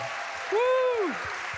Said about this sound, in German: Ich habe mich so gefreut auf diese Family Celebration und ich äh, möchte, dass ihr mit mir zusammen alle Großen, die groß sind und stark und erwachsen, die Kinder mal begrüßt mit einem riesigen Applaus.